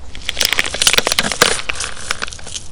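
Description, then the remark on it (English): A skeleton collapses with a busy, continuous clatter of dry, brittle knocks and rattles as bones tumble into a chest, loud and uneven for a few seconds with no voices. “As Jules continues to stuff the coins into his handkerchief, the skeleton collapses and tumbles back into the chest.”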